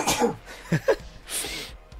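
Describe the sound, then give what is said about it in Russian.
A single sneeze with a few short breathy catches leading up to it, ending in a loud, hissing burst of air. “Ой, ребят, сейчас чихну.”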